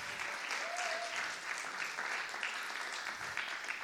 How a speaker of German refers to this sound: Das war ja der Moment Applaus